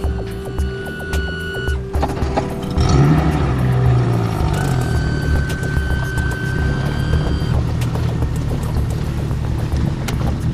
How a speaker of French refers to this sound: Et puisque le matos est prêt, eh bien on embarque. Mise à l'eau du moteur.